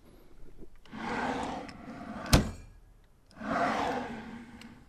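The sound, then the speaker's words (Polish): Wooden drawers slide open and shut twice, each a broad, rumbling scrape lasting about a second, separated by a sharp knock as one bangs closed. Fairly loud, with no talking. “No, może, może chcecie posłuchać, jak, jak u mnie schodzą szuflady.”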